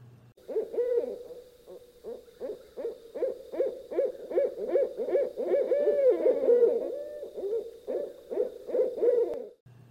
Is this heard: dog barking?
no